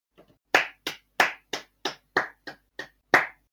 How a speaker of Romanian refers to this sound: Eu cred că la fiecare, pe fiecare strof trebuie așa să-mi dăm din palme și să nu comentăm.